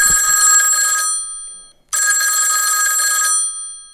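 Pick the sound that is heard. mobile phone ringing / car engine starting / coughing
mobile phone ringing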